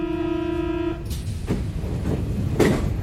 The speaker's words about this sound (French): Donc bref, j'étais dans le métro,